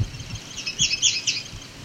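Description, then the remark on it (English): A yellow warbler sings a quick run of bright, high, sweet notes, clear over a faint low rumble of background noise. “sound like a yellow warbler.”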